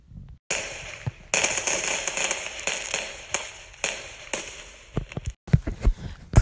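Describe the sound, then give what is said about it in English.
Fireworks pop and crackle over a field at the end of a day's celebration, in a dense, continuous hiss, with sharp bangs scattered throughout and a quick burst of louder pops near the end. No one speaks. “When the end of the night comes, everyone gathers back at the field with blankets and chairs to watch the fireworks.”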